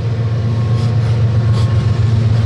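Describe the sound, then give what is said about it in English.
A train rumbles past outdoors, a loud, steady low-pitched roar with a continuous mechanical drone and faint rhythmic clatter, filling the whole moment with no voices. “this is the only time we've sat outside, and the only time a train has going. By.”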